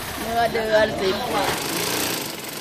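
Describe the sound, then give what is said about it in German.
Sewing machines whir and rattle steadily in a busy space, a continuous mechanical hum with voices chattering faintly in the background. “überall Nähmaschinen.”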